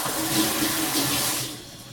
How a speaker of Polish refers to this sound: Mięso podlewamy zawsze zupełnie zimną wodą, wtedy szybciej mięknie.